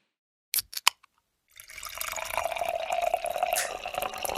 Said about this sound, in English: It sounds like a waterfall, not fizz. Well, or static.